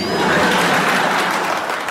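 Steady, dense clapping from an audience, a loud crackling wash of many hands that holds at an even level for about two seconds with no voices over it.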